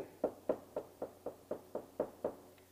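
A steady run of about nine knocks on a door, evenly spaced, each a dull hollow thud, with no voices.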